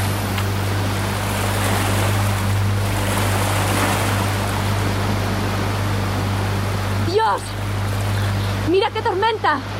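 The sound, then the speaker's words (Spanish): A boat motor drones steadily at full throttle as the boat speeds away from a yacht at sea, over the constant rush of water and waves, loud. Brief voices break in near the end. “Se limitó a poner el motor a toda máquina para alejarse de allí cuanto antes.”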